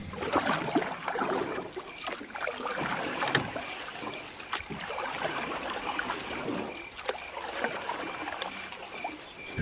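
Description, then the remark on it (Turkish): Oars splash and drip as a rowboat carrying Hamlet and Horatio moves steadily through river water at night toward a cemetery, with soft trickling and a light breeze; occasional sharp knocks of wood mark the strokes, no voices. “nihayet Hamlet babasının hayaletinin verdiği tüyo üzerine en yakın arkadaşı Horatio'yu da alarak mezarlığa gitmek üzere gece vakti nehirde bir sandala binerler.”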